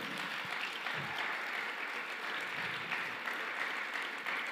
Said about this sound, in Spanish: No te quedes con las ganas de dar el aplauso al Señor, por favor.